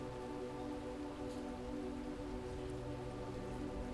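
Heavy rain pours down steadily to the ground, a dense, continuous hiss and patter of water, fairly loud throughout, with no voices.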